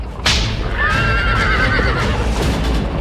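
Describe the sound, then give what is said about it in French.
A horse neighs in a long, wavering whinny that rises and falls in pitch, over a steady rumbling background of a horse-drawn stagecoach moving through a street at the gates of Paris, heading south towards Italy, with no voices. “La diligence faufile incognito dans la rue. Aux portes de Paris, elle crie au cocher Vers le sud, au soleil, direction l'Italie.”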